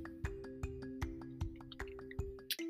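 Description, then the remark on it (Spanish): A rain sound effect for the methane rain on Titan, Saturn's largest moon: water drips fall one after another in a steady rhythm, about two or three per second, each a distinct plop, over a low sustained droning tone. “En Titán llueve. Esa lluvia no es agua, es un gas llamado metano.”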